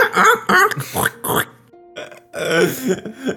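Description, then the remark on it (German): A person imitates a pig's happy squealing with a run of grunting, squealing vocal bursts, fairly loud, pausing briefly in the middle before a final squealy stretch. “Und als ihr rein, reingeht, hört ihr tatsächlich ein erfreuliches Quieken.”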